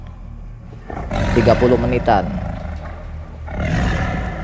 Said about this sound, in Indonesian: Geraman-geraman tersebut itu saya alami kurang lebih 30 menitan lah.